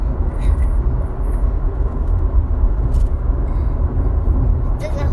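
Steady low rumble of road noise inside a car driving on the outbound trip, a constant engine-and-tire drone with faint murmuring voices underneath.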